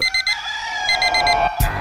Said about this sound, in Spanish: Suena el despertador.